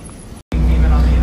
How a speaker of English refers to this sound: So right now we're on the bus and I'm sorry it's really loud, but they only allowed a maximum of 15 people on inside of the bus, uh, which is kind of crazy because it's a pretty large bus.